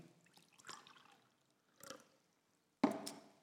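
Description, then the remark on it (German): Quiet sounds of cold, clear, fresh water being poured and sipped in a few short bursts, ending with a sharper splash or knock, with no talking. “ich mache das ganz gerne, frisches Wasser zu trinken”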